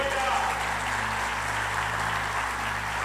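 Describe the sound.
An audience claps together in a steady, dense wash of applause that holds at an even loudness for about three seconds, with voices faintly mixed underneath.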